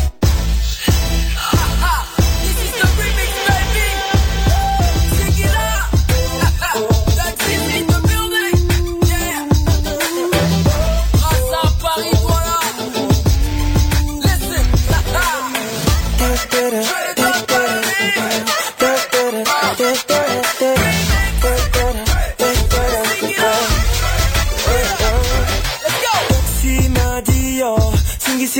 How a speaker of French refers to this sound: C'est une chanson qui figurera sur son prochain album.